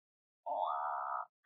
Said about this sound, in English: If for your entire life you've been unable to burp and instead of burping, you make these really awkward and embarrassing croaking noises that kind of sound like this